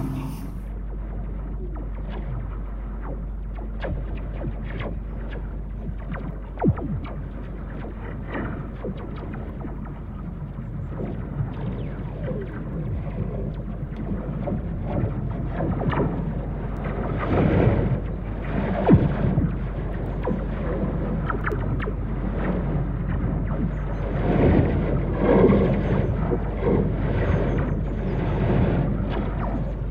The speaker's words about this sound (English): Um, but if you put these contact mics on, you get to hear this amazing kind of soundscape. This is the wind blowing the wires and also little insects or branches hitting the, hitting the cables.